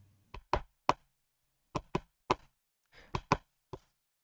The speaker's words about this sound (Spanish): Cuando de pronto oyen aquel golpe raro en la puerta, el sonido de...